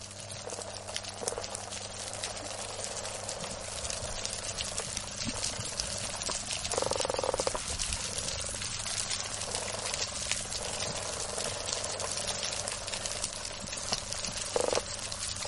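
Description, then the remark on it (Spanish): Dense, continuous crackling and popping fills an underwater coral reef soundscape, countless tiny snaps of small pistol crabs with one enormous claw overlapping like frying fat, steady throughout with a low rumbling hum beneath and no voices. “Claro, ese crepitar son unos pequeños cangrejitos que tienen una enorme pinza, se llaman cangrejos pistoleros.”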